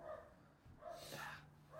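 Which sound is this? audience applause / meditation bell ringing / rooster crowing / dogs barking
dogs barking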